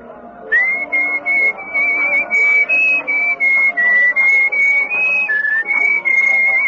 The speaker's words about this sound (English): Well, you were whistling our tune, so I thought you were expecting me.